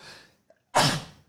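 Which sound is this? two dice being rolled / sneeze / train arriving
sneeze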